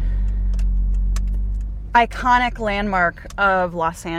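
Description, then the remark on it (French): A steady low engine rumble from inside a car driving up a hill toward the Hollywood Sign in Los Angeles, heard alone at first, then continuing beneath a person talking. “Là, on commence la montée en voiture vers le haut de la colline.”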